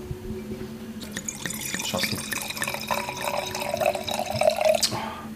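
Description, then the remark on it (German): Cold wine pours steadily into a glass for several seconds, a bright gurgling trickle with a rising pitch as it fills, with a brief spoken remark near the start. “Man muss ja vor allem erstmal auf das Geräusch achten beim Wein.”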